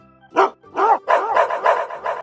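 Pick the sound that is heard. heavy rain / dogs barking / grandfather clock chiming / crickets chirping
dogs barking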